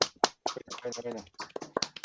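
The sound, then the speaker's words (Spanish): A few sharp hand claps ring out at the start and again near the end, with a man talking over and between them. “Un aplausito para ellos, eh. es tradición acá”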